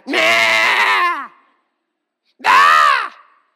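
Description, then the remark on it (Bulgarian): A voice imitates a baby crying at half past five in the morning, waking the speaker, with two loud, wailing cries: a long one, a pause, then a shorter falling wail. “И аз се събуждам, събуждам се и чувам това бебе как реве и не знам къде се намирам, защото е пет и половина”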